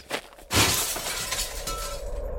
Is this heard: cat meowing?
no